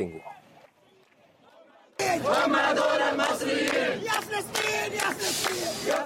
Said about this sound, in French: des bénévoles qui scandent des slogans pour la Palestine. La scène a lieu au poste frontière de Rafah.